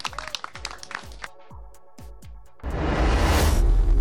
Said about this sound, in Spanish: muy bien, pues otra vez un fuerte aplauso